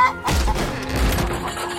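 Chickens cluck and squawk in a flurry of agitated noise, mixed with rough thumps and scuffling, as soldiers pillage chickens from local farmers.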